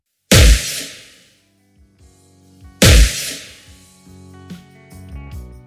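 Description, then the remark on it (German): Two loud, booming designed impact hits about two and a half seconds apart, each with a bright crashing attack that decays into a washy reverb tail from a Compressed Hall in Logic's Space Designer, mixed in via an aux send; the second is followed by ringing tonal reverberation. “Hierfür haben wir uns für einen Compressed Hall aus Logic Space Designer entschieden.”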